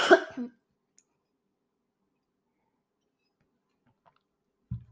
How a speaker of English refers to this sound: Sorry, I had to cough.